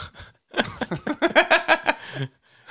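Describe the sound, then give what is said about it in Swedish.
A voice imitates an elephant trumpeting: a loud, rough blare lasting nearly two seconds with a pulsing, stuttering quality, preceded and followed by brief breathy sounds. “Låter det när ja, elefanter...”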